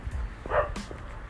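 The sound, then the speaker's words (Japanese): A single dog bark rings out against a quiet outdoor background, heard while walking home along a road with a hill on the left, a short sharp bow-wow with a faint yip trailing after it. “ちょうど左側が山になってて犬が鳴いてる”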